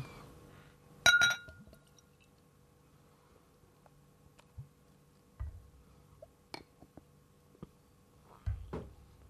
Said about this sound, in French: Voilà, donc euh, c'est une twist cap comme on appelle, donc c'est un bouchon qui se tourne, qui est rendu très rare.